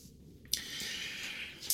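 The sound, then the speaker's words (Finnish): A sudden crisp rustle of a sheet of paper being turned over, followed by a steady soft shuffling as it is written on and a second sharp crinkle at the end; quiet, with no voices. “Okei, kääntykää se paperi toisinpäin. Voitte laittaa siihen vaikka niin kuin, merkin siihen ensimmäiselle puolelle, että tänään tai nyt tai rahaa ruokaan kuukaudessa, niin muistetaan.”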